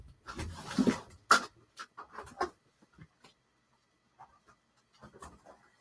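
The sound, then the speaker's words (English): A dog pants in quick, breathy bursts that grow louder as it is let out, then trail off into a few faint, scattered sounds and near silence. “I gotta let the dog out.”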